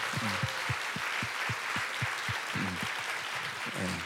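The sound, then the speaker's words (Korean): An audience applauds, producing a dense, steady wash of clapping that holds throughout, with a regular low thumping beat pulsing beneath it about twice a second. “우리 천사들에게 우리 어, 어, 그죠 어, 어, 어 격려의 박수 한번 드 천사들에게.”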